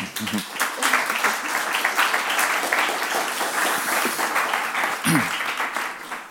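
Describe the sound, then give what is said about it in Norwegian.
A crowd applauds steadily for several seconds to welcome a professor before his talk, a dense wash of many hands clapping, with a couple of brief voice fragments rising through it. “Eh, gi ham en stor applaus.”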